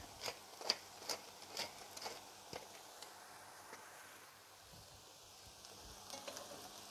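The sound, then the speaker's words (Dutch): Food seasoned with salt and black pepper sizzles steadily in a hot pan over fairly high heat, a broad crackling hiss punctuated by sharp pops and spits, with occasional stirring scrapes; moderately loud, no talking. “Het vuur staat redelijk hoog. Ook weer om te zorgen dat het eh, niet gaat stoven, maar echt gaat, gaat bakken.”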